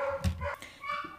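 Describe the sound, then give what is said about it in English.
A few short, sharp barks and yips from dogs barking at a cat come in quick bursts, fairly faint, against a quiet background with no one talking. “I think you can hear my dogs in the background. They're barking at the cat.”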